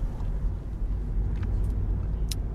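Steady low engine rumble and road noise from inside a moving car on its way out to go swimming, continuous and fairly loud, with a couple of faint high-pitched clicks or squeaks near the end.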